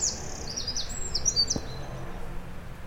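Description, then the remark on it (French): A Eurasian wren sings a fast, high-pitched stream of trills and twittering notes, steady and moderately quiet, over a soft outdoor background with no voices. “Il a un chant très mélodieux. C'est un oiseau assez familier, on peut l'approcher assez facilement.”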